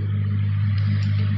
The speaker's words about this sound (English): Everyone can hear this fan that you're talking about. Like it's literally in the background. Like sounds loud. yeah, it's this amazing microphone that I have that allows me to um, to have a humongous fan blowing my face.